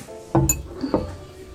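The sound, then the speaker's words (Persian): A tea glass clinks twice, roughly half a second apart, each tap leaving a bright, high ringing tone that fades quickly. No voices are heard. “منم یه ذره چای بخورم”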